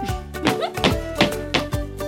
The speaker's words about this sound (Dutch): Stampen met mijn voeten. Doen jullie mee?